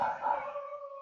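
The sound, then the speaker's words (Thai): A dog howls in one long, sustained, steady-pitched note that holds for about a second, fairly clear, with no voices around it. “ได้ยินแล้วมันก็จะนึกคิดแปลว่าอันนี้มันเสียงอะไรออนี้เสียงหมา จำได้เสียงหมาอันนี้ก็จะเลยไปสู่สมมุติเนี่ยเนี่ยรูปร่างหมา มีขาสี่ขา มีหางกำลังเห่าอยู่”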